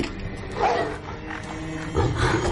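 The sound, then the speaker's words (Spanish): A dog growls low and steadily as it approaches, a rumbling snarl that swells louder near the end, with no voices present. “El perro se acerca.”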